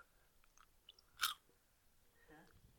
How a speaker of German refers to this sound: jetzt kaut er wieder ins Mikro.